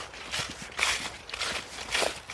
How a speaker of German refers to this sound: Letztes Mal so ein bisschen Laubgeräusche für euch.